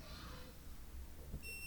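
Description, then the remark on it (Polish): A single bright electronic beep from a clothes dryer as its smart mode is switched on, sounding near the end: a steady tone that holds briefly after a stretch of quiet low rumble and faint room noise. “Może włączymy, a nie, smarta nie trzeba, o, to jest dźwięk taki jak się włącza, smart.”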